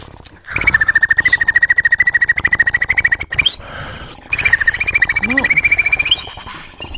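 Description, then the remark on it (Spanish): A person makes a fast, rhythmic clicking roll with the mouth, a 'click roll' done as an inward R, while whistling a steady high note over it, in two bursts separated by a short pause; the vocal effect resembles a trilling bird call. “Este se llama click roll. A ver. Es hacia adentro, una R hacia adentro.”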